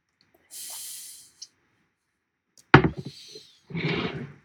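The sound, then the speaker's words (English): Someone sips a fizzy 6.5 percent canned beer: a soft carbonated hiss, a pause, then a sharp knock of the glass and a short noisy slurp, with no talking. “Do you want to sip it first, and we can take uh, the story?”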